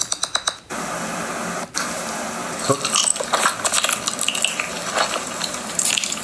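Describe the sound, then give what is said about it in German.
ASMR eating sounds: cutlery clinking and scraping against dishes, with soft mouth noises and irregular sharp taps, quiet with no talking. “Dann essen die halt.”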